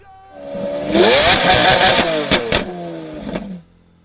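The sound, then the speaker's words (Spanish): A Lamborghini sports car engine revs hard, its pitch climbing steeply then holding a loud, raspy roar with a couple of sharp blips before cutting off abruptly; loud, no talking. “Es una marca que preciosa, rápida y suena así, mire.”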